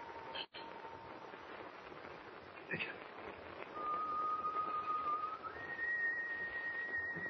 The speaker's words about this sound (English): Whoever's whi- whistling is standing right outside on deck.